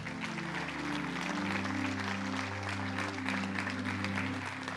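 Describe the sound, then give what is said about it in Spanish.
A church audience applauds steadily in praise of God during a sermon, a dense wash of clapping that holds at an even level for several seconds, with sustained keyboard chords humming underneath. “Denle un fuerte aplauso a Dios por eso.”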